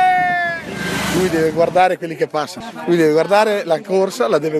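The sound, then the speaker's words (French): A loud, sustained foghorn blares for nearly two seconds over rumbling outdoor noise, blown by a roadside fan cheering cyclists racing in the women's race of the world cycling championships, then cuts off as a man starts talking excitedly. “Des hurrahs, une corne de brume et une grande photo de son idole qu'il brandit aux cyclistes en plein effort.”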